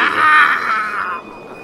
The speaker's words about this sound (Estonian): siis samal ajal on cut to, Jeff Goldblum haigutab